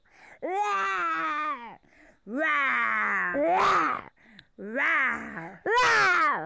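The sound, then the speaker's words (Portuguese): A child's voice imitates the roar of a little dinosaur, Dinossauro Rex, in a told story: about four drawn-out, strained vocal roars with short pauses between them, fairly loud, some ending in a raspy, noisy burst. “Ele foi andando e dando os seus rugidos mais alto do mundo.”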